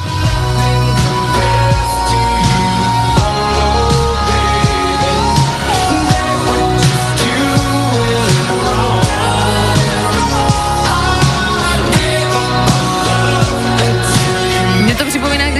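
A modern pop song plays loudly and steadily, with sung vocals over a full band arrangement and a driving beat, the music filling the whole stretch without any talking over it.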